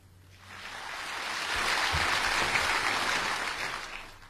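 A crowd breaks into applause, the clapping swelling over the first second or so into a steady, dense roar of many hands that holds for several seconds, with no one speaking.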